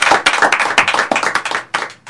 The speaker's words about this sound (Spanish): Me gustan los aplausos espontáneos.